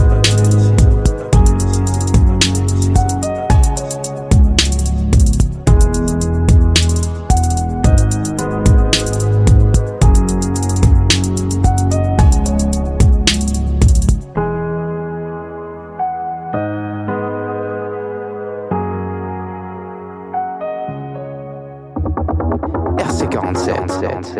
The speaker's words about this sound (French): On vient de s'écouter d'ailleurs un petit morceau de une … choisi par euh, les élèves de la 5e 5